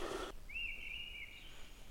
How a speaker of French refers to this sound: Avec la grive draine qu'on entend sur la gauche. Sacré coup de sifflet, hein